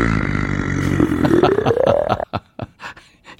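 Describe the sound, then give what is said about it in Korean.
A low, guttural growl from a handmade sound effect of a calm, non-violent Frankenstein's monster, fairly loud, drawn out with a slowly rising pitch before breaking into several short, choppy grunts. No one speaks. “이 폭력적이지 않고 침착한 프랑켄슈타인 소리입니다.”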